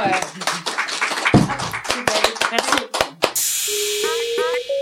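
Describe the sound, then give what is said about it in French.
A small audience applauds with sharp claps for about three seconds at the end of a discussion, before the clapping stops and a steady hiss with sustained tones takes over. “je pense qu'on peut se faire des applaudissements.”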